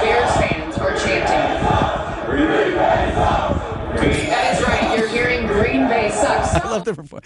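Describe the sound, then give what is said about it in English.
A large crowd of Chicago Bears fans in Chicago chants "Green Bay sucks" in unison after a Bears win, a rhythmic taunt, loud and continuous, with many voices blending into a roaring, echoing mass of shouting. “They're saying Green Bay sucks.”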